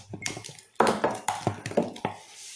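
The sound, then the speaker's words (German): Ice cubes dropped into a glass holding a drink of syrup and water: a quick, uneven run of sharp, bright clinks and knocks, each with a short ringing tail, fairly loud and with no talking. “Ja, aber jetzt erstmal noch Eiswürfel. Hier sind Eiswürfel.”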